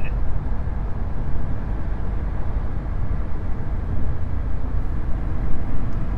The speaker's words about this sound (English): Toyota. Oh my God, it's a. It could be a NASCAR truck. Oh my goodness, that is so cool. Wow.